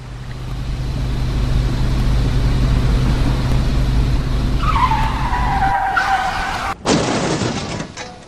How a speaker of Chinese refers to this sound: 刺耳的刹车声也躲不过巨大的惯性和冲击力，伴随着金属刮擦，场面一下破碎。